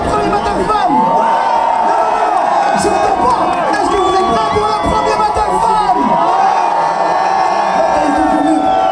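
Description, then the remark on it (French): A large crowd at a beatbox battle cheers and shouts continuously, a dense roar of many overlapping voices with high whoops and yells rising above it throughout. “Je pense que rien les femmes peuvent faire plus de bruit que ça.”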